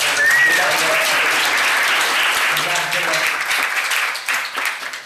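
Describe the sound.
A crowd applauds steadily for about five seconds, dense loud clapping with a brief whistle near the start and faint voices mixed in, thinning slightly toward the end.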